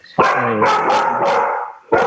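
A dog barks loudly in a long, drawn-out run of harsh, tonal yelps, followed after a short pause by the start of another bark. No one speaks.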